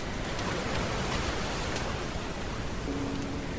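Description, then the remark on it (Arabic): A beach sound effect: steady, dense wash of surf noise filling the whole clip at moderate level, a continuous roar of waves on a beach with no distinct breaks and no voices. “ولأن الحلقة بها قليلا من الضعف في جودة التسجيل سنضيف بعض التأثيرات التي تساعد في أن تكون الحلقة جميلة صوت الشاطئ”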